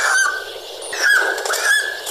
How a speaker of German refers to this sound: Natürlich ist das kein Papagei und kein Wellensittich, weil das ist, das ist, also es ist ein Vogel, selbstverständlich. Es ist ein Vogel.